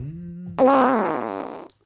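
A single loud, drawn-out fart with a raspy, fluttering buzz that wavers in pitch for about a second before cutting off. A faint low hum comes just before it.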